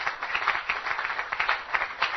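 An audience clapping together to encourage a man as he comes forward to speak, a steady patter of many overlapping hand claps that holds at a moderate level for a couple of seconds, with no voices over it.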